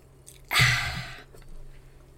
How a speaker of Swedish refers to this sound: En klunk vin först bara.